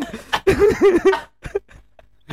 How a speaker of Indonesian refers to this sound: udah udah batuk batuk kayak batuk batuk orang tua iya udah, udah tua.